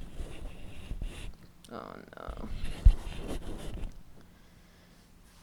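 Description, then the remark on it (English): Muffled rustling and scraping as a microphone balanced on top of a kitchen roll on a coffee table is shifted around, with a sharp thump near the middle and a brief spoken exclamation partway through. “Um, and oh, I have the mic balanced on top of a kitchen roll thing on my coffee table, and I feel like it's gonna fall off.”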